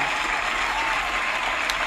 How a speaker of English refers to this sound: We gotta give ourselves a round of applause, bitch. I know the round of applause is delayed. Don't judge me. I'm not good at this sound effect shit. But the round of applause is necessary.